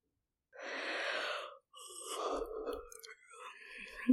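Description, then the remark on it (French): A big, drawn-out yawn during a slow stretch: a long breathy inhale followed by a groaning, voiced exhale that trails off, heard alone without other talk. “On lâche un grand bâillement.”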